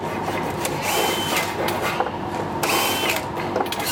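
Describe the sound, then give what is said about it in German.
Busy workshop noise as a special transport trailer is being built, with power tools whirring and grinding, mixed with clanks and ratcheting clicks of metal and wood work, steady and fairly loud throughout with no talking. “Die Werkarbeiten für den speziellen Wagen sind schon in vollem Gange.”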